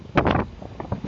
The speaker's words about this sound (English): If you hear a lot of wind and noise in the background, I thought I'd try something different. So, if you could hear me, this is what's going on.